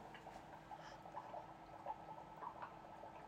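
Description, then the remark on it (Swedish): Soft, continuous bubbling and gurgling of premium lager fermenting in tanks, a steady low burble with small irregular pops, fairly quiet, with no voices. “Så, här har vi, här på golvet och tittar på tankarna. Och det bubblar.”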